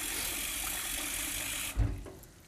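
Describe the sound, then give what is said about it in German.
Steady cold water pours into a bowl holding half a cup of rice until the bowl is full, then cuts off with a soft thump, followed by quieter swishing as a hand lightly stirs the rice around in the bowl of water. “Mit den Händen so ganz leicht drin ein bisschen rumrühren.”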